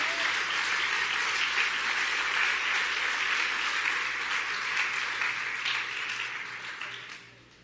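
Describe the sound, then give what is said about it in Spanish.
A church audience breaks into sustained, dense applause of praise to the King, many hands clapping together at a steady roar that holds for several seconds before tapering off at the end. “Denle un buen aplauso de alabanza al Rey.”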